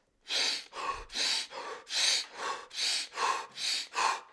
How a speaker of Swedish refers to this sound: Eh, och andningsövningen gick ut som så att man gör 40 stycken repetitioner eh, av att inandas maximalt. Kan inte du andas nu för se? In och ut.